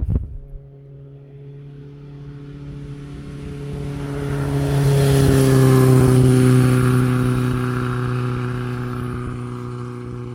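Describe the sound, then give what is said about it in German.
Traffic on a road: a steady engine hum swells as a car approaches, peaks loudly mid-way, then its tone drops slightly and fades as it passes. No one speaks. “Und ich habe mir vorgenommen, wenn die wieder auf dem Rückweg sind, dann werde ich einen kleinen Posten aufbauen an einer Straße, wie man hört,”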